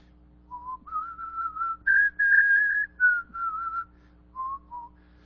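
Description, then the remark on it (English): A man whistles a clear, wandering melody of sustained and stepped notes with short pauses between phrases, moderately loud over a faint low hum, as he walks. “Here comes a man, and he, as he's walking, he's whistling a tune.”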